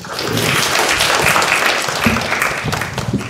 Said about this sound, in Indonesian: baik terima kasih terima kasih tepuk tangan